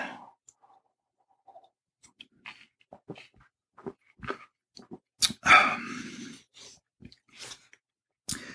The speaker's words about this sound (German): Oh, noch einen Schluck trinken, Mensch.